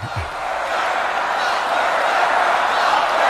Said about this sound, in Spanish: todo el mundo coreando, lock her up. Que la metan a la cárcel, dicen, como a la cárcel le escucha cómo gritaba toda la gente. Vaya. durante los, sí, durante los discursos, especialmente el de Chris Christie.